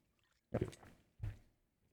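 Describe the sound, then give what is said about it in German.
A person drinks water in two wet gulps about half a second apart, each a short throaty swallow, with quiet stillness before and after and no talking. “Muss kurz trinken.”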